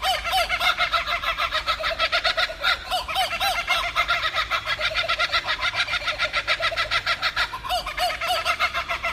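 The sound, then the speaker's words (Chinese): An Australian kookaburra's laughing call: loud, rapid cackling notes repeated in a continuous rolling chorus that swells and dips throughout, with no one talking. “就是澳洲的笑翠鸟，所以说我说不是看到，而是听到，因为呢，它们叫的声音就是像一个人在放声大笑那样。”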